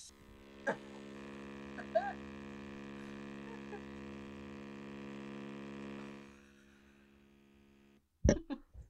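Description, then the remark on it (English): A vibrator drones with a steady, rich electric buzz for about six seconds, then winds down and fades out. A brief knock follows after a moment of quiet. “I don't know if you hear that, but after I use my vibrator, I like to put on ringtones.”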